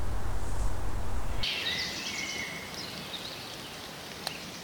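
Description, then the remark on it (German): A quiet ambience of a beech forest used for forestry, with sparse, faint birdsong over a soft, steady background hush, after a brief low rumble at the start. “Und so klingt ein anderes Waldstück am selben Tag, wenig entfernt. Auch ein Buchenwald, aber forstwirtschaftlich genutzt, das Spektrogramm weniger dicht gefüllt.”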